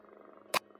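cat purring

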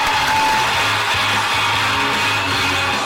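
audience applause and cheering

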